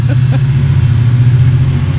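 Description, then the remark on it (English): A large vehicle carrying many people, making its way to Joliet, rumbles loudly with a deep, steady engine drone as it pulls away, continuous throughout, with a faint murmur of voices briefly at the start. “it's starting so, to pull away”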